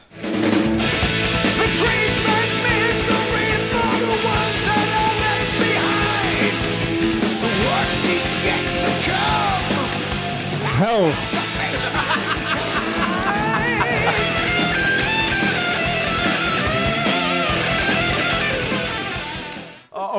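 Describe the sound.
A loud, dense stretch of distorted heavy metal music, the part of the song just before the guitar solo, with full-band harmonics and a brief vocal shout, sustained at steady volume for about twenty seconds before cutting off.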